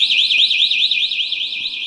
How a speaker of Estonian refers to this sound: et tekiks ettekujutus, mis siis juhtub, kui midagi nii ei lähe, nagu peab, antakse ka väike proov toimivast signalisatsioonist